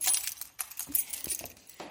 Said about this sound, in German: Ähm, das sind übrigens meine Schlüssel. Ich weiß nicht, ob man das gehört hat bin gerade